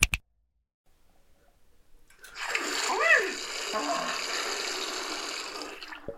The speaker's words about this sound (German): Klar, eine kalte Dusche am Morgen stärkt die Abwehrkräfte.